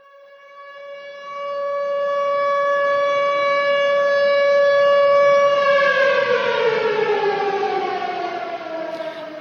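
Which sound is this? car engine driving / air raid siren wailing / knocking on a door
air raid siren wailing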